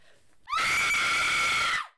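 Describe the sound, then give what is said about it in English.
A single loud, shrill human scream rises sharply and holds for over a second before trailing off, piercing, with no talking around it. “I want to try to do a blood curdling scream.”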